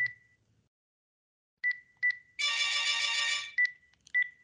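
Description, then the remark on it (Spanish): A phone ringtone plays as the speaker tries to switch the phone off: short electronic beeps with a steady tone, then a loud, dense buzzing chime burst about a second long, followed by more beeps. Clear, no talking. “el teléfono suena, tengo que apagarlo.”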